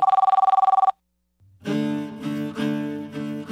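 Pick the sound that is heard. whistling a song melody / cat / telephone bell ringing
telephone bell ringing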